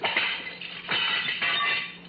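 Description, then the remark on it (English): The kitchen window glass of a vacant house breaking at dusk in a few loud, bright shattering bursts, each crash trailing off into scattered tinkling shards, with no voices. “I waited a few minutes to be sure no one had heard me, and climbed in through the broken kitchen window.”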